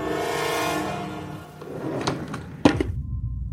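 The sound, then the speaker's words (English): A drawer in a house is pulled open with a few short wooden thunks and a scraping slide, fairly loud, following a fading musical tone, as a man takes a strange mask out of it. “Goes back to his house where he pulls a strange mask from a drawer.”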